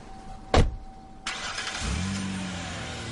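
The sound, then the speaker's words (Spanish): A sharp thud, then a car engine cranks and catches, settling into a steady rumbling idle with no one talking; someone gets into the car and starts it. “Hank sube y arranca.”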